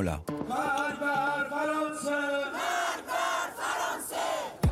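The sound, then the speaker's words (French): A large crowd of protesters in Iran chants slogans such as "death to France" in loud unison while burning the French flag, many voices rising together in rhythmic, shouted phrases that swell and repeat, sounding forceful. “Ils ont crié mort à la France, ils ont brûlé son drapeau.”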